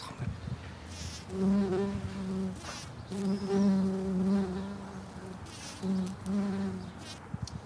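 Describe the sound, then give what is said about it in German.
Several species of wild bees buzz around flowering plants, making repeated passes with a steady droning hum that swells and fades as they fly toward and away, no talking. “Was sind das für Viecher, die da jetzt auf diesen Pflanzen rumfliegen? Es sind also verschiedene Bei Wildbeiarten.”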